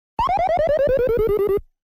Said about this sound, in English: That's the sound of the dog in Duck Hunt laughing at you when you lose the game.